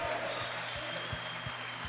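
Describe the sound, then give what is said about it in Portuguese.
An audience applauds the Lord steadily, a dense wash of many hands clapping at an even level, with soft low thumps recurring underneath and no clear voices standing out. “Dê um glória a Deus e aplauda o Senhor porque Ele vive.”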